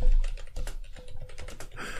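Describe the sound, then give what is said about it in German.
Rapid typing on a computer keyboard as something is written down, a quick irregular run of light clicking keystrokes with a brief burst of louder, brighter clatter near the end. No one speaks. “Ich schreibe mir das eben auf, weil das ist ja unsere Regel.”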